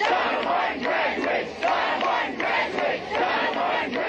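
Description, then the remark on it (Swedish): A large crowd chants the slogan "Donna Martin graduates" in unison, loud and steady, with the same short phrase repeating in a regular rhythm about every second; an inserted sound effect. “Donna Martin graduates, Donna Martin graduates. Nej. Jag måste lägga in den här effekten i, i klippet.”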